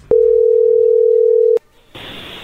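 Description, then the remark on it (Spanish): A steady, unbroken telephone dial tone hums at a single low-mid pitch for about a second and a half while a call is being placed, cuts off abruptly, and after a brief pause gives way to a hissing line noise. “A ver, vamos a llamarle a ver qué sucede”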